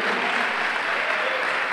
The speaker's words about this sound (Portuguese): igreja, aplauda, continua aplaudindo.